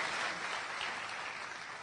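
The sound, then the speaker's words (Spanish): A steady wash of applause from a crowd, many hands clapping at once into a dense, even crackle that holds at a constant level throughout without any voices. “Pido un fuerte aplauso para todos ellos, mi línea de auspicio, mis hermanos, mi cuñada, mi papá y mi mamá,”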